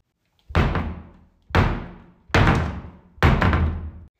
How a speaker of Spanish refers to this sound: De pronto la linterna se apagó y escucharon cómo se cerraban las puertas de los cuartos de arriba de la casa.